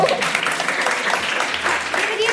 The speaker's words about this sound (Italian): Guarda, senti che applauso spontaneo che fanno.